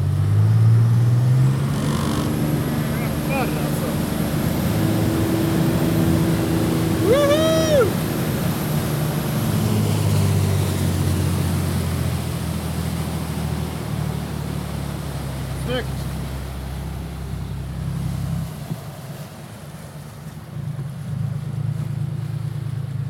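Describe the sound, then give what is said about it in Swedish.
A rescue motorboat engine roars steadily at high speed as the driver increases speed, loud, with a deep continuous drone and gusts of wind buffeting the microphone throughout. “Så kan du lägga på farten. Ja, jag lägger på.”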